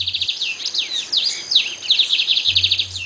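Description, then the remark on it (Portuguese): A lined seedeater sings one of its two song dialects: a fast, continuous run of high, sweet chirps and sliding trills, clear, with a faint low hum at the start and end. “eu estava pesquisando sobre o som né, do, do bigodinho e ouvindo alguns arquivos e comecei a reparar que tem cantos muito diferentes um do outro.”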